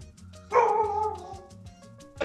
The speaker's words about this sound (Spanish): ¡Eh! ¡Eh! ¿Qué pasó ahí? A ver, un perro, a ver, Eh, solo la única persona que tiene perro. No, no tiene un perro. Sí, es mío. es un perrito.